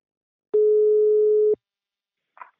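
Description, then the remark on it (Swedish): A single steady telephone ringback tone of an outgoing call to the company Invacare hums clearly for about one second, then stops, followed by a brief faint click. There is no talking. “Nu tar vi en kort paus och ringer upp min samarbetspartner Invacare.”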